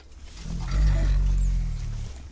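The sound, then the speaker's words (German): An eight-month-old orphaned elephant calf at a rehabilitation centre for injured elephants calls for its keeper, a loud, low, rumbling call that swells and holds for about two seconds, with no other voices. “eng die Bindung des acht Monate alten Babys an seinen zweibeinigen Mutterersatz ist, merkt man daran, dass es während unseres Interviews immer wieder nach ihm ruft.”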